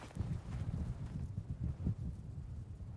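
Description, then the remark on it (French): Horse hooves clip-clop at a slow, steady walk as a man rides along a stony country path on the Nicoya peninsula on a hot, sunny day, dull repeated thuds set against a constant rush of dry wind across the microphone. “Et tout à coup, j'aperçois au loin comme un cow-boy, un homme à cheval qui avance, mais qui avance très lentement.”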